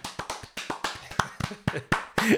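Quick, uneven hand clapping: a run of about fifteen sharp, crisp claps over a couple of seconds, fairly loud, with a brief voiced sound creeping in right at the end.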